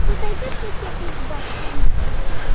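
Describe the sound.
Wind buffets a microphone fitted with a furry 'dead cat' windshield in a steady low rumble, swelling into a stronger gust near the end, with faint voices murmuring in the background.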